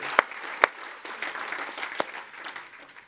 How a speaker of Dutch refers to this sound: Come on, why don't we give him a hand right now? Ah, kom, laten we een applaus